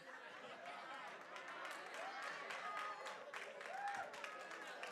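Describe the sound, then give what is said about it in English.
A church audience claps during a sermon in a steady, dense patter of many hands for several seconds, mixed with crowd chatter and a brief laugh or cheer. “Somebody's not clapping somebody said, I beg to differ.”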